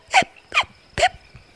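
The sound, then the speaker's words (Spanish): Three sharp, voiced hiccups in a row, fairly loud, each a quick gulping burst spaced about half a second apart, with no talking around them. “Mi sopa ha cambiado las voces de mis amigos y además tengo hipo.”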